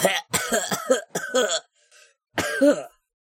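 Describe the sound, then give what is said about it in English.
A person fakes a rough, throaty coughing fit as if from inhaling spores: a quick run of hacking coughs, a brief pause with a faint wheeze, then one last drawn-out cough. “Lest he inhale some and begin coughing.”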